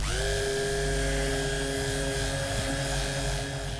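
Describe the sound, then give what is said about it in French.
A blender whirs steadily while mixing basil pesto made with chilled basil leaves, a loud, constant motor drone with a high harmonic whine that holds even throughout, with no talking. “C'est parti, on a le pesto et on mixe.”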